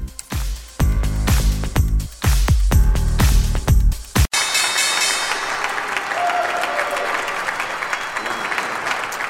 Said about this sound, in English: That was the opening bell in remembrance of tomorrow's 20th anniversary of 9 11. The families of the two New York Stock Exchange members, you can see their pictures there, who died on that day, ringing the opening bell